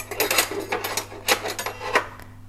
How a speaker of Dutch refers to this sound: ik ga proberen heel stil te zijn. Met het bestek. Oh, weet je wat heerlijk is? Als ik normaal gewoon mijn bestek kan gooien. Gewoon heel, heel, heel snel gaat het dan. Maar nu gaat het niet zo snel.